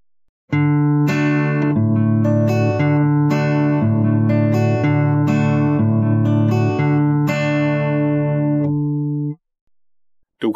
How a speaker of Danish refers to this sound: Du kan også gøre det, at du veksler imellem bas og efterslag, altså knips samtidig af alle tre lyse strenge, og så et fingerspil. Hør mig gøre det her på en DR-kort.